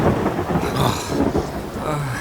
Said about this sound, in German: Puh, es kommt näher und nicht zu langsam. Das Gewitter ist nur noch ungefähr vier Kilometer entfernt.